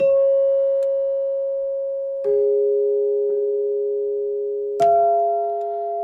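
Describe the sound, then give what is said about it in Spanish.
Three tubular bells that seem to be bronze, struck one after another in their set order, starting with the smallest. Each has a sharp metallic attack and a long, sustained ringing tone; the second sounds lower, the third higher and brighter. “son tres campanas tubulares em, muy bonitas, de, son, no sé qué material será, como bronce, ¿no?”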